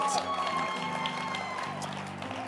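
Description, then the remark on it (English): An audience applauds film stars steadily, a dense wash of clapping with cheering voices mixed in, sustained at an even level for the whole stretch. “Clap your hands for them.”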